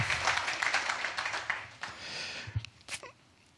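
A short burst of audience applause, dense clapping that swells briefly and then thins out into a few scattered claps and small noises after about two seconds.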